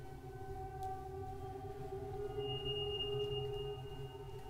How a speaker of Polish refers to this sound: Dzwoni telefon.